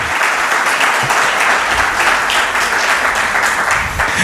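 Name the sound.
audience applause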